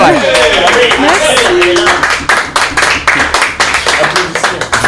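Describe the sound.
A round of applause for the week's guest on a show, dense rapid clapping that thins into scattered individual claps toward the end, with voices calling out over the first couple of seconds.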